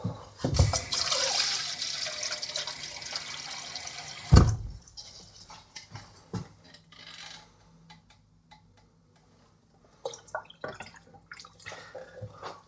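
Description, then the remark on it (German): While cooking, water pours steadily into a cooking pot for a few seconds, ending with a sharp metallic clank, followed by quieter scattered knocks and drips. No one speaks. “Also jetzt noch das Wasser noch.”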